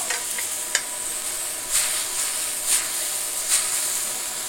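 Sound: food sizzling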